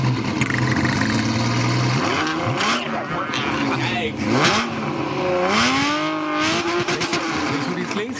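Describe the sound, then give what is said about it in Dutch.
A Ferrari Testarossa engine revs loudly, its pitch rising and falling in several sweeping bursts over a steady throaty drone, with no talking over it. “En ik heb nog even wat dat oude geluid van de Testarossa.”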